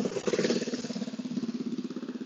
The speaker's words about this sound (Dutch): je gaat zo ook even wat auto's horen, want ik rij een klein stukje langs een drukke weg. Ehm, en dan staat hier ook een motor of brommer die nu langs gaat rijden.